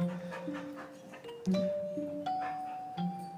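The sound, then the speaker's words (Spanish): A dog vocalizes in high, drawn-out whines broken by two or three short bark-like bursts, with soft panting underneath and no one talking; the dog has come to fetch its owner. “Me el perro a buscarme, mira.”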